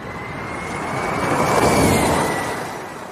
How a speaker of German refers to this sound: Und ich bin dafür, dass wir einfach mal hier ein Formel-E-Auto durchfahren lassen und dann mal zusammenkehren, was so passiert ist.